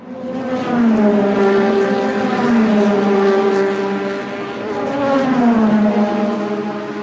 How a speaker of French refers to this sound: Alors, une autoroute un jour de grand départ Une course-poursuite sur le périphérique parisien ou un concert d'aspirateur. Et non, rien de tout ça. Les férus de sport mécanique auront bien sûr reconnu le rugissement caractéristique d'une voiture de